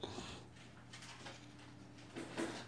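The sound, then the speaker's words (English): A female dog chewing a rawhide bone bigger than she is: quiet, irregular gnawing and crunching scrapes in uneven bursts, over a steady low hum, with no talking. “So that's my dog.”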